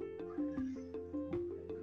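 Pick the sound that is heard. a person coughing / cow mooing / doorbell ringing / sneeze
cow mooing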